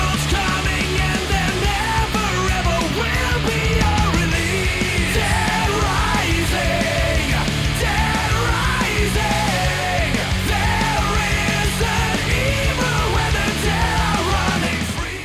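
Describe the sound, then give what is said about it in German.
A loud, dense rock song plays continuously, with heavy distorted instruments and pounding drums beneath a raw, screamed vocal that rises over the wall of sound at steady full volume. “Also ich würde ne? gar nicht sagen, dass der nur schreit.”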